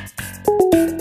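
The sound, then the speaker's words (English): A phone call to a Starbucks cuts off, followed by three quick electronic beeps and a steady tone, clear with no talking. “And that is the sound of a phone hanging up.”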